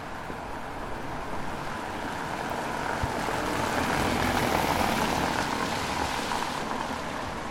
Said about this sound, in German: Es tröpfelt. Gleich fegt der Wind wieder gefallenes Laub über nassen Asphalt, wirbeln Blätter in die Höhe und auf glänzendes Pflaster. Der Herbst ist da.